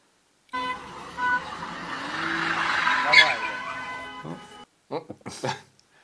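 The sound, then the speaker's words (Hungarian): A car engine revs hard while tires squeal in a long, continuous skid for several seconds as the car tries to drift in circles, rising to a peak before cutting off, followed by a couple of brief voice-like bursts. “hogy ő azt gondolta, hogy ő tud driftelni.”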